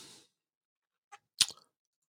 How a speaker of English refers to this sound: Let me see here. Someone just sent it to me. As I'm typing away here.